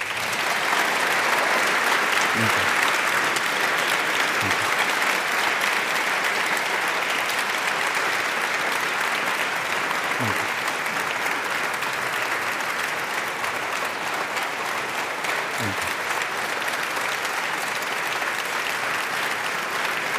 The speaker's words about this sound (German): Sparen Sie sich noch ein bisschen Beifall auf, denn wir müssen natürlich auch nochmal ausdrücklich sagen, Herr Botschafter, herzlichen Dank, dass Sie gekommen sind ähm, in diesen so existenziellen Tagen für Ihr Land.